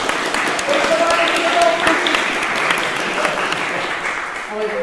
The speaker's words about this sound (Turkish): Ve alkış